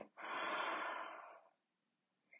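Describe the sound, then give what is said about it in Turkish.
One long, deep breath, in through the nose and out through the mouth, a soft breathy rush lasting over a second, followed by quiet and a faint brief click at the end. “Tekrar derin bir nefes al burnundan ve ağzından boşalt.”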